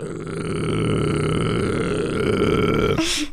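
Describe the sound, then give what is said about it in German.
A single very deep, gravelly sung note, the lowest the singer can sing, held steadily for about three seconds, loud, ending abruptly with a short breathy exhale. “Sing mal den tiefsten Ton, den du singen kannst.”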